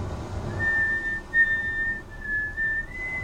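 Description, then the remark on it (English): A man whistles a national anthem as a slow, sustained melody with long held notes, clear, over a faint low background rumble with no talking. “he's whistling a national anthem.”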